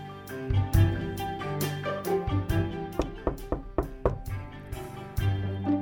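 A woman knocking on the large wooden front door of a village house, a scattered run of sharp raps, soft at first and then louder in quick succession when nobody opens, over a steady tonal background with no voices.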